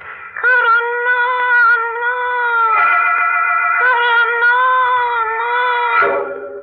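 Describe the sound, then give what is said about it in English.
A doll set down on a bureau, untouched, gives off a long, warbling electronic cry, a steady wavering whine like a distorted mewing voice that holds for several seconds, fairly loud, with no other sounds around it. “I didn't touch it. Wasn't even looking at it when a new sound came from it.”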